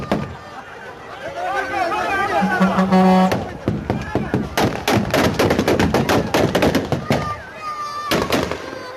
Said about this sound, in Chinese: 但是混乱的是，现在喀布尔机场包括周围还是枪声大作。我们来看看最新画面。